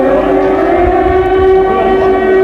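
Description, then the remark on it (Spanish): An air raid siren wails with a steady, sustained tone, its strong harmonics holding loud and level throughout, over a low rumbling background with no voices; the air raid alarm in Dresden in February 1945, at nine minutes before 10 p.m. on a cold, clear night. “Nueve minutos antes de las 10 de la noche comenzaron las alarmas antiaéreas.”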